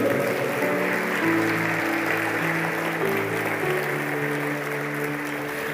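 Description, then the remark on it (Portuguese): A crowd applauds God steadily for several seconds, a dense, sustained wash of clapping from many hands, while held keyboard chords play softly underneath. No one speaks. “Se você está entendendo, aplaude esse Deus maravilhoso e soberano.”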